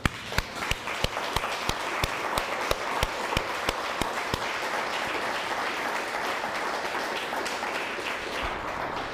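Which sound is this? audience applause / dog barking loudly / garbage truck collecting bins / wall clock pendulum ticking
audience applause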